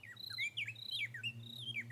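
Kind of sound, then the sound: bird, birds chirping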